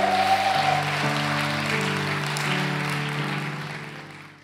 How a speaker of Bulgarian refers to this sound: Има жени, които ръкопляскат, като че вярват това.